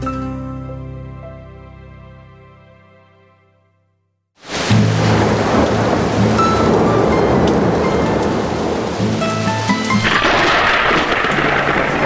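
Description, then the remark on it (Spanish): A sustained note fades into a brief silence, then heavy rain bursts in and pours intensely and steadily over a mountain village to the end, a dense loud hiss with a low rumbling undertone and no voices. “Estamos en un pueblo en las montañas. Llueve intensamente.”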